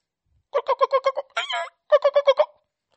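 Chickens clucking in two quick rhythmic bursts of about five or six clucks each, separated by a single longer, harsher squawk. No one is talking.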